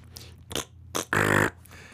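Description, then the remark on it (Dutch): A fart sound, probably made with the mouth: two short puffs, then a longer, loud, buzzy raspberry lasting under half a second, with otherwise quiet surroundings. “Nou, volgende scheet. Nou, nog eentje dan.”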